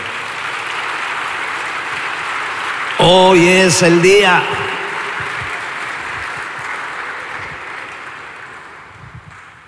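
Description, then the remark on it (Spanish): An audience at a religious congress applauds the Lord in a steady, dense wash of clapping that fills the whole clip, briefly overlaid by a man speaking, then slowly tapering off toward the end. “Dale un aplauso al Señor, por favor.”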